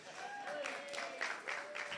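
Scattered applause from a small group, with uneven, loosely timed claps at moderate loudness and a faint sustained tone running underneath.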